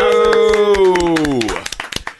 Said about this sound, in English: Well done, us. We got a bigger applause than number one. Hey, we must be great.